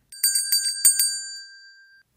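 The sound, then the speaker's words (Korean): A bright, bell-like chime rings out alone in a quick series of metallic strikes, then a sustained ringing tone lingers and fades over about two seconds, like a correct-answer ding-dong jingle. “딩동댕.”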